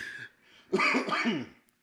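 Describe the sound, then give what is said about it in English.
A single loud cough, put down to allergies, with a harsh, raspy voiced quality, lasting under a second after a brief breathy intake, with no talking around it. “Sorry, allergies. it was a cough.”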